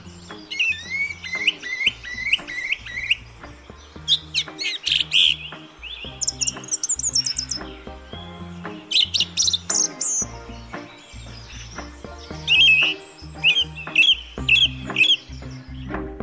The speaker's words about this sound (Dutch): Nou, laten we nog eindigen met gewoon een opname van de zanglijster. Oké. kan de luisteraar ook even meegenieten. Dan gaan we even lekker luisteren naar de zanglijster.